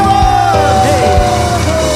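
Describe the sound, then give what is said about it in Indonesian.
Loud, continuous crowd noise: an audience cheering and applauding for the show's music director, with sustained yells and whoops riding over a dense wash of sound for the whole stretch. “Teman-teman sekalian, berikan tepuk tangan buat teman saya yang luar biasa.”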